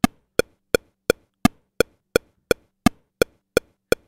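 A steady metronome using custom sound clips ticks alone, twelve crisp woody knocks evenly spaced at a brisk tempo, each one sharp with a quick decay and silence between beats.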